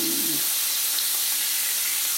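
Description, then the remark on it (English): Steady sizzling of bacon, turned yellow with turmeric, and about three jalapeno slices frying together in a hot pan, a dense crackling hiss that holds evenly throughout with no talking. “And I'm frying the jalapenos as well as the bacon, which has really turned yellow now because of the turmeric.”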